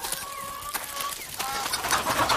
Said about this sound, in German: Ich glaube, die Hennen mögen mich nicht.